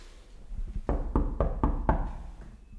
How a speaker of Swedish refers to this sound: ska vi knacka på igen.